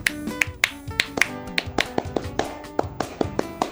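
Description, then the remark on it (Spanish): A sparse round of handclapping: sharp, separate claps in an uneven, quickening rhythm over faint sustained musical tones, with no voices. “Chicos, mal los aplausos, bien las anhelas.”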